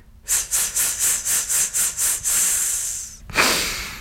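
A rapid series of about nine short, forceful breath puffs, then one long sustained exhale and a final sharp burst of breath, fairly loud, with no talking. This is a vocal breathing exercise, done several times to get the breath going, using the belly to push the air out.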